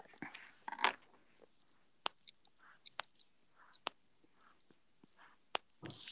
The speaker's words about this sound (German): Atmest du oder ist das ein Stift? das ist ein Stift.